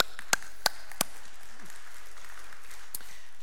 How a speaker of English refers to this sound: And yeah, we can clap for that.